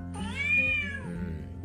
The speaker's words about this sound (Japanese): ちょうどね去年の9月7日にうちのにゃんこをねあの河原でちょっと保護したんですよね、まあ、すっかり大きくなって嬉しいですよね。